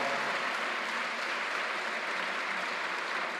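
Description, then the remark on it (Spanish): An audience applauds the Lord for a scripture reading, a dense, continuous wash of many hands clapping at once that holds an even level throughout, with no voices standing out. “¿Cuántos le pueden dar un aplauso al Señor por esta palabra?”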